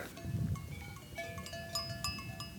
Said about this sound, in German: Der Wanderweg geht mitten durch. Und das kennen wir gar nicht. Hier liegen einfach Kühe. Man hört sie ja auch im Hintergrund ein bisschen klingeln.